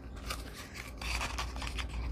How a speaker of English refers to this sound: Or wherever the end is, you could put a paper clip down the side